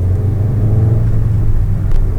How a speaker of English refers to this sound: And uh, I am currently third in a line of three cars heading through here, keeping a safe distance